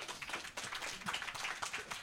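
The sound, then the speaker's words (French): An audience at a live show applauds the house band leader steadily: a dense wash of many overlapping hand claps, bright and crackly, holding at an even moderate level throughout with no voices. “Vous êtes à 70 on, applaudit”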